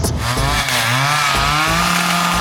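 A chainsaw engine roars loudly, its pitch climbing and dipping as the throttle is revved in quick surges, with no voices over it.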